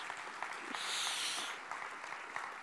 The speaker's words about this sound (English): Why don't you give them. A round of applause today. Thank you guys so much.